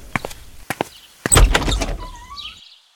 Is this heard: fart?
no